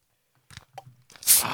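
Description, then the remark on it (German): Outdoors, as a Riesling and a bottle of Bellheimer are being opened, a few soft clicks and rattles of handling are followed by a bottle opening with a sudden loud, bright hiss of escaping gas as the sparkling drink starts to fizz. “Ah, schön, wie das sprudelt.”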